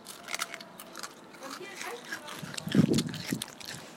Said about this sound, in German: Dann wundert euch nicht, wir essen gerade Eis. Mhm. Es ist vielleicht ziemlich blöd, dass wir jetzt ein Eis essen beim Aufnehmen, aber.